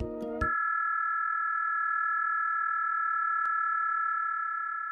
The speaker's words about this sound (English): Just on the edge of human hearing, at around 18,000 to 20,000 hertz, data is being transmitted over sound. It's called ultrasonic communication, even though it might be audible to a child or someone with excellent hearing.